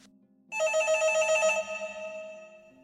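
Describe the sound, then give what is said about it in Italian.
A home landline telephone rings loudly at night, one sustained shrill bell burst lasting about a second before trailing into a fainter ringing tone over a low hum. “Il telefono di casa suonava incessantemente.”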